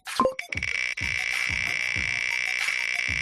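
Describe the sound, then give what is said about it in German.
An online prize wheel, spun to draw book giveaway winners from a list, turns with a steady, evenly spaced ticking, each tick a dull thud, over a constant buzzing electronic drone, opened by a short bright chime. “Boah, das dreht sich ganz schön schnell.”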